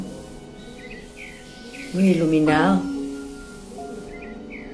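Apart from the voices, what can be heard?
small birds chirping outdoors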